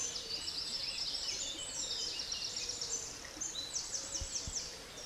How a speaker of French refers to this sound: Les oiseaux, imperturbables, poursuivaient leurs conversations indiscrètes.